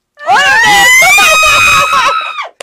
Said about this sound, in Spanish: Ay, disculpa, me grité mucho, perdón.